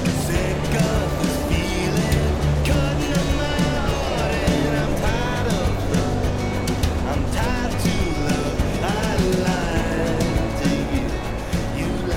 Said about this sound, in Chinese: 大家可能能听见外面的这个声音是海浪的声音，大家可能想问为什么？